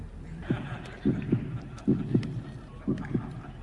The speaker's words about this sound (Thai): จนแทบจะไม่ได้ยินเสียง หายใจเข้าออกของใครสักคน นอกจากเสียงหัวใจเต้น